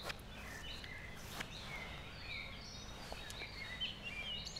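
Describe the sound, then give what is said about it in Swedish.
A common blackbird sings, its soft, fluting phrases rising and falling over a quiet outdoor hush, with no one speaking. “Det där är en koltrast den jäveln.”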